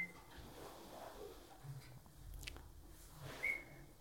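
A trainer's whistle gives two short, sharp high blasts, one at the very start and one near the end, with soft munching and rustling noises in between and no talking.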